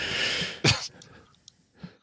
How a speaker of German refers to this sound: Äh, wow, das war jetzt übersteuernd ich habe leider mal husten müssen, tut mir leid.